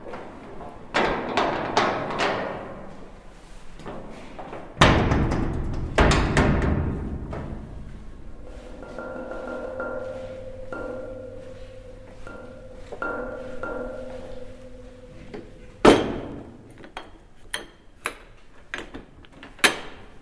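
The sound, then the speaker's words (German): A very heavy bunker door booms shut behind someone with deep thuds and clanks, followed by a lingering metallic hum and a few sharper latching knocks near the end. No one speaks. “wir hören jetzt gemeinsam, wie es klingt, wenn eine unfassbar schwere Bunkertür hinter einem zufällt.”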